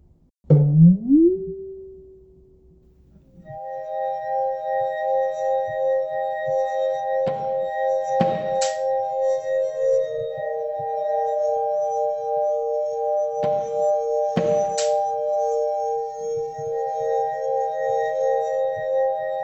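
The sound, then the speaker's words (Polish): A wobbling, sliding twang opens, then steady ringing wine-glass tones sustain and shift pitch, punctuated by a few sharp clicks and clinks from bottle caps; music played on wine glasses, bottle caps and a ruler, with no voices. “Przed kolejnym blokiem posłuchajmy ostatniego już przykładu czystej muzyki absurdalnej. Na taśmon, kieliszki, makaros, kapsle, linijak i gumiole.”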